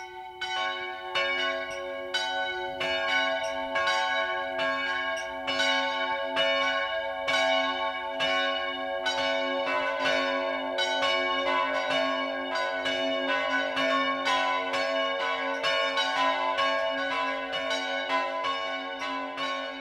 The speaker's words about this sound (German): Es ist 12 Uhr. Das Mittagsläuten kommt heute von der katholischen Pfarrkirche St. Michael im oberbayerischen Sachrang.